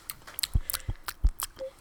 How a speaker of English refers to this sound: Like I think the thing about the beans is it's more of a chewing experience than lemonade is.